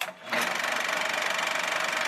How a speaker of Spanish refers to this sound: y el cinematógrafo.